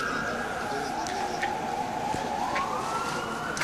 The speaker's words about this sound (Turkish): bakın bu ambulansın sireni, bu Elif'i hastaneye götüren ambulansın sireni bu. Onu duyuyorsunuz şu anda